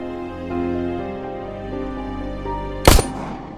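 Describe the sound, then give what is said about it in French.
A steady, hum-like tonal drone plays until a single sharp revolver gunshot cracks out loudly near the end, its blast briefly ringing before fading away. “La détonation du revolver remplacera la corne de brume.”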